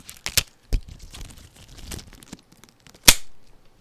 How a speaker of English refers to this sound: Whoops. Ow, that kind of hurt. Glove broke. Sorry. Let me just put another one on.